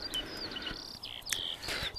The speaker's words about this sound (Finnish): Tästä viseryksestä tulee mieleen vanha laulu Miksi leivo lennät Suomeen ja jopa niin varhain keväällä, eli jo laulun tekijä tiesi, että se on ensimmäistä muuttolintujen joukossa.